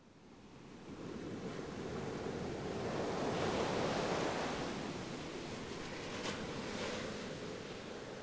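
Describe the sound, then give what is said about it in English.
Ocean surf rushes and breaks on a beach in a steady, hissing wash, swelling loudly over the first few seconds and then settling into continuous roar, with no voices present. “the beach was the one, you know, saving grace”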